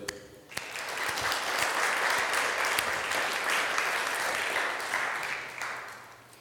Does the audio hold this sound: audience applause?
yes